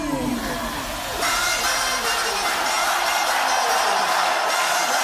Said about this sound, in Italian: Il pubblico oramai è in delirio.